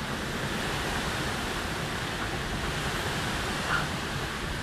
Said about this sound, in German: Es rauscht halt. Meeresrauschen. Ah, das hört sich anders an.